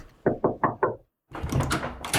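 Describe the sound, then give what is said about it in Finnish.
Four quick, evenly spaced knocks by room service on a hotel room door in London, fairly loud and solid, then a brief silence before a fuller, busier burst of sound takes over to the end. “Hotellihuoneen oveen koputettiin, siellä oli huonepalvelu.”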